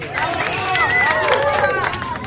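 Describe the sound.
A crowd applauds a boy who taught them hip hop and break dance, dense clapping mixed with loud cheering voices and rising and falling shouts, sustained at an even level throughout.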